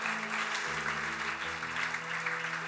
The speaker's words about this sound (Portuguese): E se você crê, aplauda Jesus por isso.